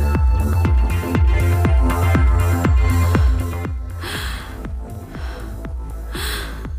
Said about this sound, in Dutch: waarop je … eh, hoort hijgen terwijl je naar een bos kijkt